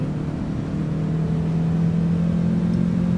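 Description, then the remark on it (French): A car engine drones loudly and continuously at a fairly steady pitch, a low motor hum with a whirring edge throughout, as a car accelerates while being chased by another car; no voices. “Accélère Oui, chef, on va les coincer.”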